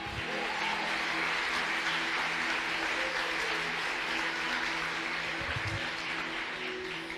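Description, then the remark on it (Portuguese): An audience applauds the Lord, many hands clapping together in a dense, steady wash of sound that holds at an even, fairly loud level for several seconds, with no voices rising above it. “Aplauda o Senhor.”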